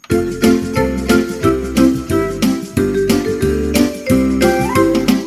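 Lively instrumental intro to a Christmas medley, loud and up close, with a steady bouncy beat, bright chiming accents and full harmonic backing, no voices.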